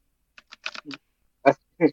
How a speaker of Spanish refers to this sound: se te escucha todo el teclado. Perdón, es, es un gamer jugando... profesional. A los gamers profesional se le escucha el teclado.